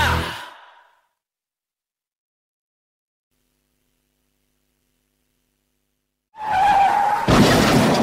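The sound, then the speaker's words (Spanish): A loud tire screech skids in after a stretch of silence, with a sustained squealing tone that gives way to a harsh, noisy crunch-like burst, like a car braking hard toward a crash. “¿Sufrió un accidente de tráfico?”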